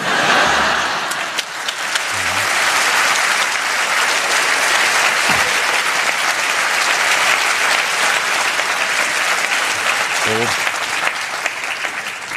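An audience applauds steadily, a dense, sustained wash of clapping that fills the whole stretch at a fairly loud level, with a few faint low murmurs or laughs underneath.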